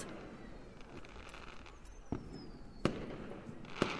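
fireworks exploding

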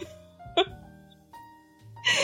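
fart

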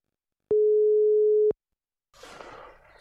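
telephone ringing tone

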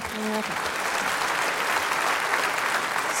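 audience applauding

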